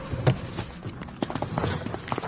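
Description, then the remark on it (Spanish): Quick, irregular footfalls of someone running away through a construction area, each step a sharp knock on a hard surface, over a low rumbling background. “En cuanto se distrajeron un segundo, salí corriendo.”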